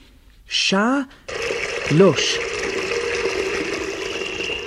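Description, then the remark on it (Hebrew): A short squeaky, whining tone gives way to water gushing steadily from a tap being tested on a lower floor of a building, a constant hiss that keeps running to the end, with a brief vocal sound partway through. “היו מים. בדיוק כמו ברצפה העליונה, בברז של הציפורים.”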